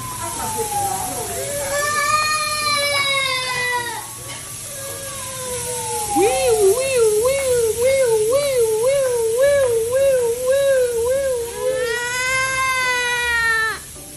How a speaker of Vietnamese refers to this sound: mua cái ô tô về đúng cái lúc mà nó đang ăn cơm ấy các bạn tôi cũng ngồi trêu nó nó tự khóc không ạ